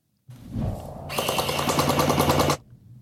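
A DJI RoboMaster S1 robot starts with a low motorized whir, then fires a rapid, rattling burst of shots for about a second and a half, fairly loud, ending abruptly.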